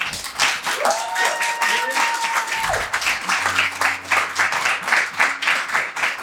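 A crowd applauds a music group with dense, steady clapping throughout, accompanied by a few cheers and whoops; a low sustained tone hums beneath the applause partway through.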